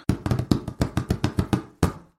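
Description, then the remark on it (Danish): Hollow, dull taps on a cardboard box, about a dozen in a quick, steady rhythm, then a short pause before one final tap. Clear, with no voices. “En papkasse. Det er sandt. Pap er også en slags papir.”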